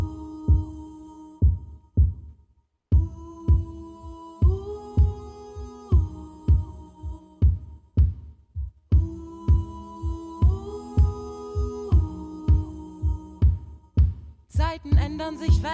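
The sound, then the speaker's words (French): An instrumental song intro for the second music break: a steady, thumping kick-drum pulse under sustained synth chords, with brief pauses in the chords and a bright shimmering flourish at the end. No voices. “C'est l'heure de la deuxième pause musicale”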